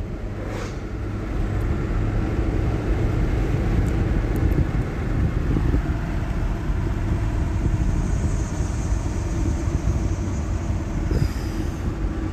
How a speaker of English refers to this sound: I'm not the only one liking this road, apparently. Traffic!